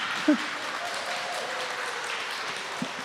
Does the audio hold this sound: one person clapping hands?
yes